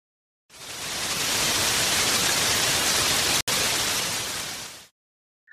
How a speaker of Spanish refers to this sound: Un día que estaban todos los animales reunidos en un claro del bosque, empezó a llover muy fuerte.